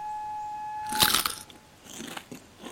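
Crunchy nibbling on a moss-stuffed pine cone: one sharp, loud bite about a second in, then a few softer, quicker crunches and chews trailing off. No voices.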